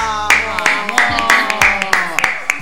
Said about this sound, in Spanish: Y la tenemos aquí en el estudio, así que quiero pedir ya mismo un fuerte aplauso